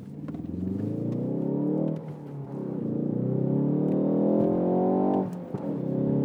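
A car engine revs up and growls loudly, its pitch climbing steadily, dipping briefly, then rising again in a sustained throaty roar.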